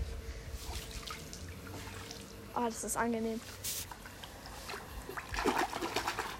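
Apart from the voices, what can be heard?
water splashing and trickling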